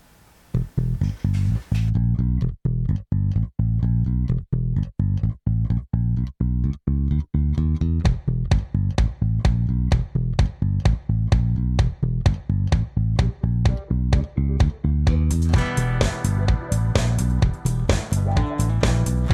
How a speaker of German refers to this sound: Aber das wird im Lied dann gut zu hören sein. Ich glaube, wir hören es einfach mal